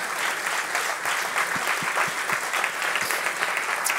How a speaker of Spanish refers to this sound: Si le va a dar el aplauso al Señor, déselo fuerte.